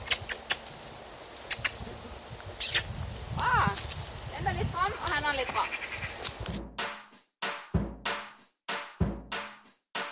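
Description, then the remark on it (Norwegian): A horse being ridden uphill, its hooves clip-clopping in a run of distinct hollow knocks in the last few seconds, following a noisy stretch with animal calls and faint voices in the background. “Først og fremst sammen sånn med hesten.”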